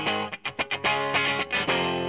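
A short burst of loud, heavily distorted electric guitar rock with a driving beat and rapid rhythmic chops, dense and saturated throughout, with no voices.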